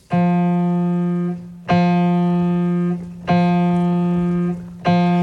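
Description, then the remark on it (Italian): A bell tolls the same low note, an F, four times at an even, unhurried pace, each loud stroke ringing on steadily until the next one sounds; it is the bell that will strike midnight in the cemetery scene of a Stravinsky work. “E poi ci sarà un altro istante in cui il tempo viene bloccato nella scena del, del cimitero quando Tom deve scegliere come morire, il diavolo l'ha già condannato, comincia a rintoccare la campana che suonerà a mezzanotte.”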